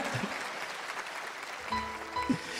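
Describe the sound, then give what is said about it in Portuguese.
A church audience claps steadily for the person beside them, a dense wash of many hands that holds for the whole stretch, with faint sustained tones entering underneath partway through. “Dá uma salva de palmas para a pessoa do seu lado aí.”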